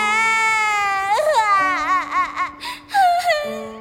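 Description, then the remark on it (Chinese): A voice imitates two chicks wailing loudly while calling each other's names as they reach for each other, one standing in a swamp: a long, high-pitched sustained cry that breaks into wavering, sobbing pulses, with a second lower, steadier cry joining partway through. “墩墩哥， 小美， 鸡小美和小鸡墩墩一边喊着对方的名字，一边哇哇大哭。”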